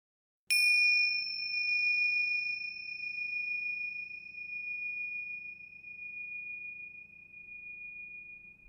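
A single bright bell chime strikes once, clear, its pure ringing tone sustaining and slowly fading over several seconds with no voices present.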